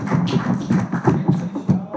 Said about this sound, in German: Herzlichen Glückwunsch nachträglich. Applaus